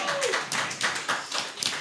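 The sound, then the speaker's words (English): A crowd applauds, with dense, overlapping handclaps forming a steady crackling wash throughout, rising in brief louder surges. No one speaks over it. “Yeah, we're getting applause right here.”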